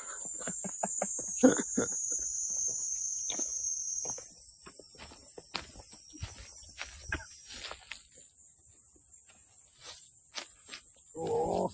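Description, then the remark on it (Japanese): Many cicadas buzz in a steady, high-pitched drone that fills the whole scene outdoors, with scattered clicks and rustling footsteps breaking through the constant hum. “セミすげえいる。”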